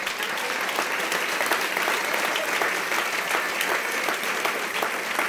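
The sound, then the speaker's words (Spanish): Steady audience applause fills the whole stretch, a dense, even patter of many hands clapping at a constant, fairly loud level with no voices on top. “Si usted va a aplaudir, yo no sé.”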